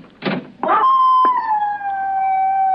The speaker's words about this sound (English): Why don't you complain to the neighbors about that dog?